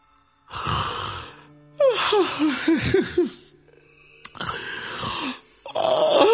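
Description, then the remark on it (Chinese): A man imitates a string of drawn-out yawns, about four in a row, each a long breathy vocal stretch with wavering, groaning pitch, separated by short pauses and fairly loud throughout. He is acting out a woman sitting on a small stool by the stove in a kitchen, yawning nonstop. “再看张三的媳妇呢，在灶台边上有个小板凳，坐在这小板凳上，不停的跟那打哈欠。”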